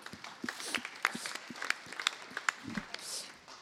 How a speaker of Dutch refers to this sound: Mag ik een applaus voor mevrouw Lepolder van de VVD?